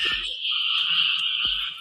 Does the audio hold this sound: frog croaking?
yes